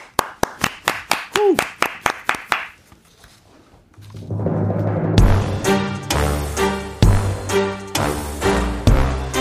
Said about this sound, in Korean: 큰 거 온다. 박수로 청해 듣습니다.